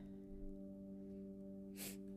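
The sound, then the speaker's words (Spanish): A single sharp, forceful breath into the microphone near the end, from a speaker breathing very hard, standing out over a steady low electrical hum; no one speaks. “Disculpa que, que, esté respirando muy fuerte.”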